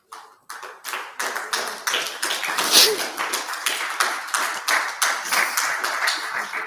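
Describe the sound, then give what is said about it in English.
A crowd claps steadily for several seconds, a dense patter of many hands at a fairly even, moderate loudness, with no voices standing out. “Please, it's not to the applause of me.”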